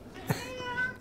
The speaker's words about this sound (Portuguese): esse momento foi a primeira participação do gato no episódio. É, isso é o gato. O gatinho tá chegando aqui perto do microfone.